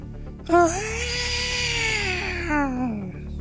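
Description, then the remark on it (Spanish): A person imitates Godzilla's roar with their voice: one harsh, drawn-out wailing screech lasting about three seconds, loud and raspy, its pitch sagging lower toward the end, with no other talk. “No me sale el gritito de Godzilla.”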